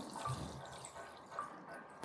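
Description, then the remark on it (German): A soft, steady stream of water pours gently into a tub, a quiet continuous trickle with faint dripping and no voices. “Ich gieße das Wasser über genau. den Kenzer, damit da keine Luftblasen entstehen.”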